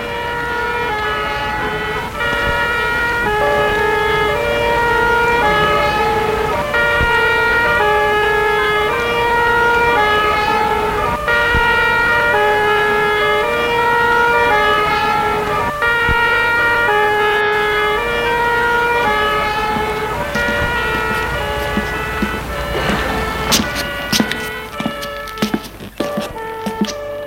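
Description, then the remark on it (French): A fire engine's two-tone siren wails loudly, alternating steadily between high and low notes for the whole stretch, with a few clunks and road noise near the end, as firefighters arrive at a burning apartment building. “Quelques minutes plus tard, les pompiers arrivent.”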